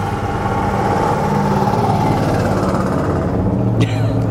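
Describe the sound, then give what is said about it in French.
Cars on the street produce a steady, loud engine rumble that fills the whole stretch, low and droning, with a brief sharper rattle near the end. “Eh oui, ça c'est les voitures.”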